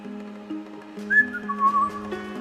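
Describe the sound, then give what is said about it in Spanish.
A captain whistles appreciatively while looking over a room: a short whistle that slides up and then wavers along, set over a steady low humming drone, with no one talking. “silbaba apreciativamente mientras reconocía la habitación.”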